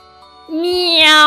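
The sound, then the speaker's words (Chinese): A single drawn-out meow, likely a voice imitating a cat, here a big fat cat in a story, starting after a brief quiet moment and swelling louder as its bright, tonal pitch rises slightly toward the end. “猫叫了一声，突然就窜出来了。”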